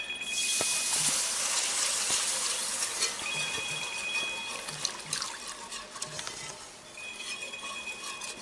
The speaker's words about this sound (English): All right, I think our roux is about brown enough, see? I'm gonna put two cups of water